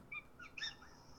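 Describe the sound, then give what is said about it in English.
A pet bird chirps a few quick, high tweets in the background, faint, over a low steady room hum. “I love the I love the bird in the background because nobody really knew what the fuck that was.”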